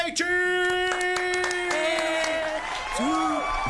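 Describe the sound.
An audience claps steadily for a few seconds to welcome the guest of an interview, while sustained vocal whoops and cheers rise and fall over the applause, ending with a quick upward-then-down voiced yell.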